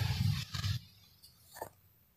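A heavy ocean wave from a strong swell crashes with a deep, roaring rumble against the walls of seafront shelters, then washes back into a quieter hiss, with a smaller surge of water shortly after.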